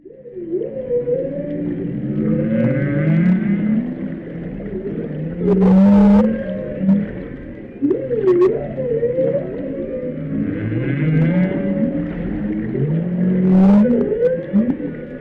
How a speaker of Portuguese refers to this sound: E agora nós vamos ouvir os sons das baleias jubartes brasileiras. Som esse postado pelo projeto Baleia Jubarte no YouTube.